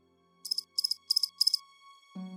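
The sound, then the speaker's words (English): A cricket chirps in a forest after dusk in four evenly spaced bursts of rapid, shrill trills over a faint background hum. A low, steady buzzing tone cuts in at the very end. “the forest had taken on a soothing hum of cricket and insect noises”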